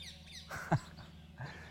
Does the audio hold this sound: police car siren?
no